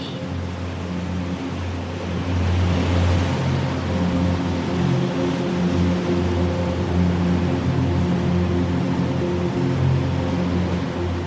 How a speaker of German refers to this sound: Das sanfte Geräusch der Wellen wird dich leiten und langsam in deine Träume begleiten.